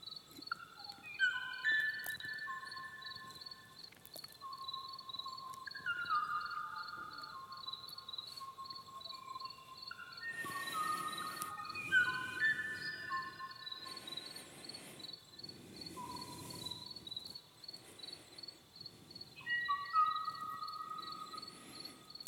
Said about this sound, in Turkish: Bu Kuvay kuşu. Bu ses 1987 yılında son kez kaydedildi. O günden bu tarafa bu kuşu gören yok. Duyan yok. Yani neslinin son örneği.